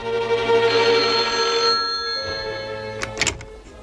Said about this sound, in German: zur selben Zeit, als der erste Detektiv den Laden von Luquan verließ, klingelte bei Inspektor Cotta das Telefon.